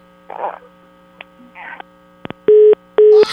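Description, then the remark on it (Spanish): A phone line rings out on an outgoing call: two loud, steady mid-pitched tone bursts in quick succession over a constant low hum, after a few faint murmurs of voices. “Ahí está. Ahí está sonando.”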